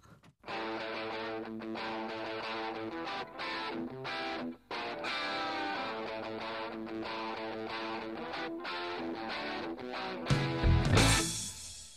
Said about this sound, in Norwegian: la oss bare høre eh, … med …